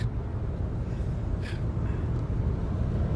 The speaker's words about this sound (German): Ich sitze gerade im Auto auf der A2 Richtung Hannover und ich dachte, ich mache mal eine kleine Reportage live von unterwegs.